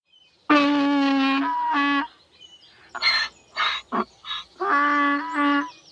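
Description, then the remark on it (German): A donkey brays loudly, its honking calls rising and falling in a strained hee-haw rhythm, with raspy wheezing breaths between the louder blasts. No one is speaking. “Hier haben wir ihn schon einmal gehört, unseren tierischen Hauptdarsteller, dem wir uns in vier Folgen widmen wollen.”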